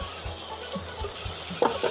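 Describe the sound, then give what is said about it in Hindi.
Two bowls of soaked brown rice being gently stirred in a pan, with a soft, steady scraping and gentle sizzle, punctuated by a few sharper clinks of the spoon against the pan near the end. “mix कर लेते हैं”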